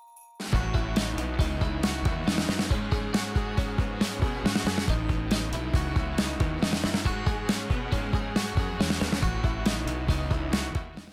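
Energetic music by a young pop band plays loud and full, with steady driving drum beats, bass and bright layered instruments in a quick regular rhythm, no voices talking over it.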